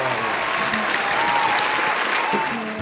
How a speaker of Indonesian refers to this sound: perlu kita apresiasi tepuk tangan dulu dong